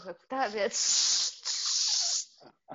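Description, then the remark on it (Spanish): A voice imitates an aerosol spray: a brief voiced sound, then two long, steady, breathy hisses with a tiny pause between them, fairly loud, ending in a couple of soft breaths. “Yo, yo cuando, voy, yo cuando voy, a Colombia con mi esposo me toca como salir con, con un aerosol.”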